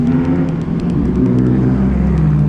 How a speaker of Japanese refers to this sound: うわーすごいなこの車がすごい排気量の車が通っていきました